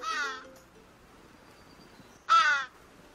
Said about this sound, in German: aber das sind einfach Vögel.